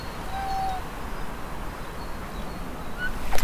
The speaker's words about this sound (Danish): Der er kommet en lille kat, der smyrer sig om benene på mig. Hvad er du for en? Du må godt følge efter mig.